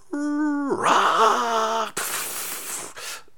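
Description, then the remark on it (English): A man lets out a strained, wavering shriek lasting nearly two seconds, fairly loud, then it breaks into a harsh, breathy rasp that trails off. “he's letting off shrieks like that”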